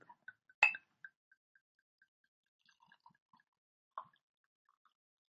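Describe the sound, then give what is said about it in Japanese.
Shochu glugs from a freshly opened bottle into a rocks glass: a quick run of hollow plops and gurgles, one louder splash early on, then softer irregular drips trailing off. “せっかくグラス用意したでしょ、ロックグラスをさ。じゃあちょっと、とっとっとっと。”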